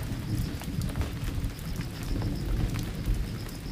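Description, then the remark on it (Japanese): A low, steady thunder rumble, still sounding after a lightning flash, rolls on underneath continuous rain, with a dense wash of patter and no voices. “まだ鳴ってるよ鳴ってるよさっきピカって光ったのとこの音とのこの何、うん、感覚がすごい数えるの嬉しくない、うん、なんかどれぐらい遠いかな”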